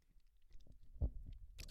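Someone chewing an Oreo cookie right into a microphone, soft crunchy, wet mouth noises in irregular bursts, a louder crunch near the middle and crisp clicks toward the end, no talking.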